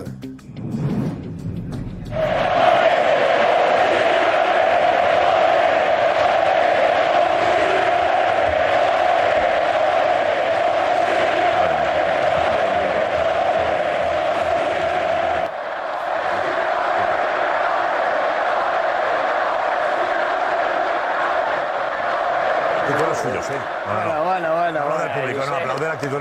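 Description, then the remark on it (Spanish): Atlético football fans in the stands sing a chant in unison just before the final whistle of the match. A loud, sustained roar of voices with a steady melodic line that carries on for over twenty seconds, briefly dipping midway. “el escuchado a la afición del Atlético cantando, al Atlético Club, cantándole qué?”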